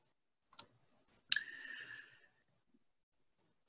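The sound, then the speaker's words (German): Two crisp computer mouse clicks about a second apart, the second followed by a brief ringing tail that fades out, then near silence. No one speaks. “So, jetzt muss ich hier nochmal eben klicken.”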